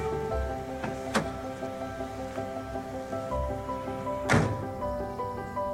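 A door is opened with two dull, moderately loud thuds about three seconds apart, heard over a steady droning, musical background with no talking.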